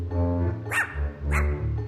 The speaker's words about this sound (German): Eines Morgens zerriss Hundegebell die tiefe Stille.